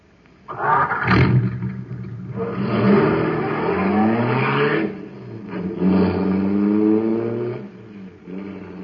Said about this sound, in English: Boy, that cosmic surface car is really roaring. That's because it's supercharged with super fuel.